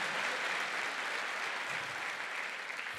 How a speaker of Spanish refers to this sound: Dele fuerte ese aplauso al que vive. Amén.